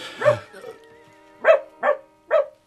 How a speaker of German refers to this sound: Was war das? Haben Sie dieses schauderhafte Geräusch gehört? Ein Geschenk, mein Lieber. Ein echter angelsächsischer Jack Russell.